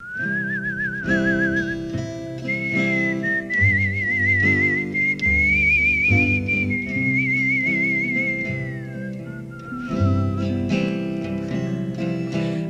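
A clear, wavering whistled melody, the intro of a pop song being played, floats above a gentle band accompaniment of bass and chords, carrying the tune for several phrases before briefly fading at the end.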